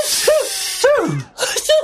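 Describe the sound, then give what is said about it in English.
Three quick sneezes in a row, each a breathy hiss ending in a sharp voiced burst, likely a person imitating sneezing caused by pepper. “With all this pepper, everybody is sneezing.”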